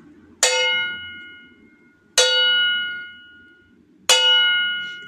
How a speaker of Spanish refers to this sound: A lo lejos oía las campanas de un pueblo.